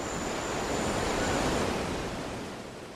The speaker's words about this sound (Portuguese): Bom, vamos curtir um pouco mais dessa cachoeira, desse cenário maravilhoso e a gente já já volta para o barco para continuar nossa viagem.